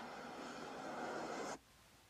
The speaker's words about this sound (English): Hold on, this train going by.